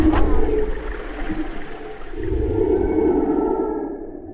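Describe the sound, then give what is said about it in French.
Underwater humpback whale song: long, moaning tonal calls that rise and fall over a low rumbling background, fairly loud and continuous, with no voices. “En fait, au tout début, l'histoire, on a commencé à enregistrer ces chants-là euh, à Hawaï, qui était une zone de reproduction.”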